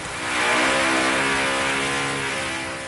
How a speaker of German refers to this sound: Noch bevor man die Stege zur neuen Unterführung abgeht, hört man es. Hier wird noch fest geschafft, um alles für die Eröffnung am Sonntag fertigzustellen. Es wird bohrt,